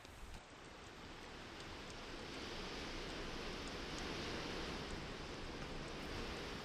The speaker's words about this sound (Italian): Poi il mormorio del fiume che scorre, del fuoco che crepita e dell'aria che incalza.